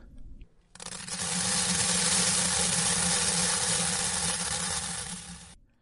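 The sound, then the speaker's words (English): Dry rice pours onto a plate, to lay a soggy phone on, in a steady, hissing rush of grains lasting about five seconds, fairly loud and even before easing off at the end, with no talking. “Here, let me, let me pour the rice.”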